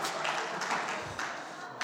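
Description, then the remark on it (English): A short burst of audience applause during a church service, many hands clapping together in a dense, steady patter that fills the moment at moderate loudness. “If you're clapping anyone, clap God, don't clap me.”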